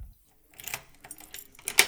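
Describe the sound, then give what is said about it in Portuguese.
A brief pause, then metallic rattling and scraping, like a key working in a lock, ending in a sharp, bright click as the lock gives. “Ouvi a chave virar e logo sua forma enorme atravessou a porta.”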